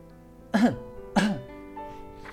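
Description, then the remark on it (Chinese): Two short, deliberate-sounding coughs, about half a second apart, each a rough voiced burst, faked by the flower in The Little Prince to distract the little prince, with a faint steady musical drone lingering underneath and no speech. “他发现自己说漏了嘴，马上假装咳嗽，以便转移小王子的注意力。”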